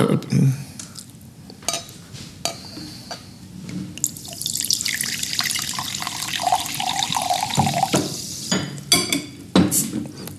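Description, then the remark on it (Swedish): Liquid is poured steadily into a glass for a few seconds, its gurgling pitch rising as it fills, with a few sharp clinks of glassware before and after. “Ska jag hälla upp någonting i glaset här?”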